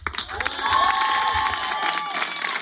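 An audience cheers and applauds together, a dense wash of clapping with excited shouts and whoops rising over it, loud and sustained for the whole stretch.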